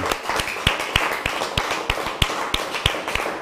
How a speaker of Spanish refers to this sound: un fuerte aplauso al Padre Todopoderoso.